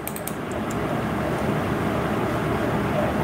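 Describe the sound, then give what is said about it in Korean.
An electric fan runs steadily with a low, continuous whirring hum, unchanging throughout, with no voices or other sounds. “소음이 약간 나지만 선풍기를 틀었습니다.”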